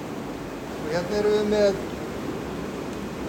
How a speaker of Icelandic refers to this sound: og ef við löpum hérna inn hér eru sko, hér eru kér, hér eru kér og hér bublar allt.